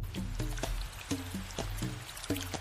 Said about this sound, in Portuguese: Vem o tempo de chuva.